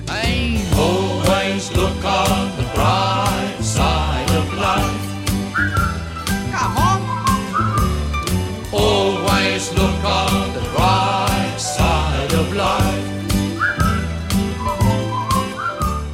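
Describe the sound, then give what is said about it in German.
A cheerful whistled melody rides over an upbeat band accompaniment with steady bass and percussion, continuing loud and bouncy throughout with no one speaking. “Wenn alles den Bach runtergeht, pfeift ihr ein fröhliches Lied und schau immer auf die heitere Seite des Lebens.”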